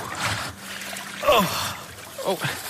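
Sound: splashing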